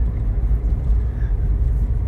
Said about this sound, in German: aber ich habe einen Wagen gesehen, der ah. da ganz hinten äh, quer geflitzt ist.